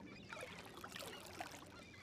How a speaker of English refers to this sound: Shh. I just heard an oar in the water.